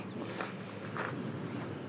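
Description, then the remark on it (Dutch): Soft footsteps crunch along at an unhurried walking pace through a cemetery toward a remote corner of it, a few distinct treads standing out over a steady outdoor hiss and low rumble. “We laten de andere bezoekers achter ons en lopen naar een uithoek van het kerkhof.”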